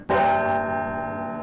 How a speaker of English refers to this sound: the historic bells of Albany City Hall.